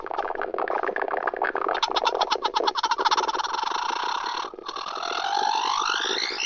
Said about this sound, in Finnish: Tän on kokeillut tätä kanttiaaltoa seuraavaksi.